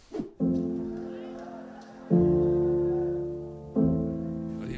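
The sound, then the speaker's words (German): Slow, mournful music of long sustained chords, like a funeral organ, shifting to a new chord every couple of seconds. It plays fairly loud and steady, with no voices over it. “Die Musik klingt schon so, als müssen wir uns gleich begraben gehen.”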